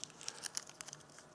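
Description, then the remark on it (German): Quiet crinkling of a banknote being crumpled and crushed, a flurry of sharp little crackles and rustles in quick irregular bursts over about a second and a half, with no voices. “Schau mal, diese Geschichte hier, die ich zerknüllt habe, zerstampft.”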